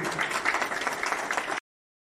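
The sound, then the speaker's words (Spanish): An audience applauds with dense, steady clapping that holds at a fairly even level for about a second and a half, then stops abruptly. No one speaks over it. “Un aplauso para”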